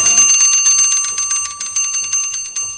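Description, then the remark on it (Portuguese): A mechanical alarm clock rings loudly on its own, a bright metallic bell trilling in rapid, steady bursts of high-pitched strikes for about three seconds. “Quando o despertador tocar, você pode largar.”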